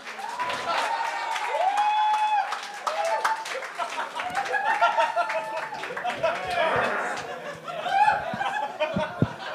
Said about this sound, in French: Il reste qu'un invité, mesdames et messieurs. Un tonnerre d'applaudissements pour le prisonnier.